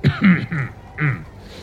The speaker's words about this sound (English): The person who was blackmailing Dreza, and he coughs,